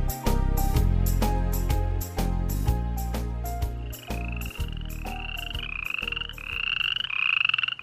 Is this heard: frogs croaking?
yes